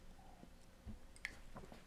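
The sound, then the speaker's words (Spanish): Quiet mouth sounds of someone taking a sip of water: a soft gulp and a few small wet clicks and smacks, with no talking. “perdón, déjeme tomar tantita agua.”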